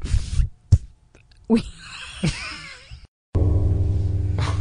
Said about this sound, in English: Nice timing. Sorry. I literally just pressed record as you banged the microphone.